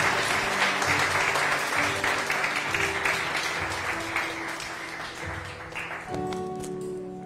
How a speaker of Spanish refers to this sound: Si están de acuerdo, dale un aplauso al Señor, dáselo, dáselo pero de corazón.